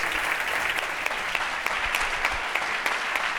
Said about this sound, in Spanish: un aplauso muy fuerte, por favor.